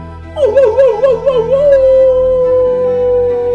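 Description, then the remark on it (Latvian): A voice imitates a drunk wolf's howling song: a wavering, warbling cry that settles into one long sustained drawn-out note, loud, with nothing else around it. “lai vilks ēd, dzer un līksmojās. Bet negausnieks drīz vien piedzērās un iesāka bļaustīties.”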